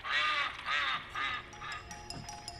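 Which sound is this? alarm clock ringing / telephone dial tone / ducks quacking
ducks quacking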